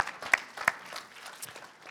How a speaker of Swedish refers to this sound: Tack ska ni ha. Tack, Fantastiskt. Tack, tack. Ge dem en stor applåd.